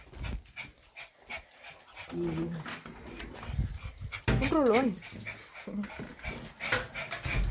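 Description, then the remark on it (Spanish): An excited female dog pants rapidly and lets out high, wavering whimpers, asking to be let out to relieve herself, with a person speaking briefly. “No sé por qué mi perra está tan emocionada de ir al baño eso pasa cuando se siente mal.”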